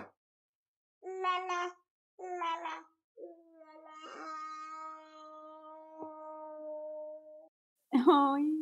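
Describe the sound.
A toddler sings in a small, high voice, close to the mic: two short bursts, then a long wavering held note, and a final brighter burst.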